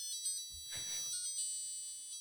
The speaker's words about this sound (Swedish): Och jag hittar exakt vilken klocka det är. uh, så vi kan lyssna på exakt hur det låter. Det är tydligen en Melody Alarm Armitron Krono 4 någonting sånt där. Och den låter så här.